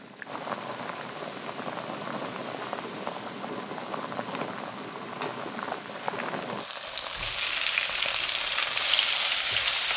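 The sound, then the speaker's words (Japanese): Napolitan spaghetti with fresh, in-season mushrooms frying in a pan, a steady crackling sizzle that suddenly flares into a brighter, hissing roar partway through, continuing loudly to the end. No voices. “目覚めのいいね今朝は旬の生マッシュルームを使ったナポリタンのいい音それではお聴きください。”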